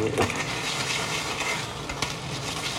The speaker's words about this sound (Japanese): すいません、ちょっと今、ハンバーグをね、焼きながら、収録ということになってます。もう焼けるんでね